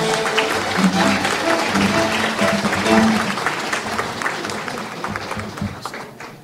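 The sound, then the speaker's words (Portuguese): Sustained applause from a sizable audience at a ceremony awarding medals to military police officers of the 24th Military Police Battalion of Diadema, dense and steady for several seconds before gradually thinning out, with faint voices murmuring underneath. “Uma salva de palmas aos nossos homenageados.”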